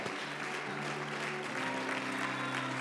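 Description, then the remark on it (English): A church audience claps their hands to the Lord during worship, a dense wash of many hands with sustained low musical tones underneath, continuous and fairly loud throughout. “Come on, let's get, come on, keep clapping your hands to the Lord.”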